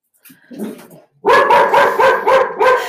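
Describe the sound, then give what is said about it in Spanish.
A dog passing by outside a house barks repeatedly in a quick, steady series of loud yaps, preceded by a brief softer murmur. “Disculpen, va pasando un perro por fuera de mi casa.”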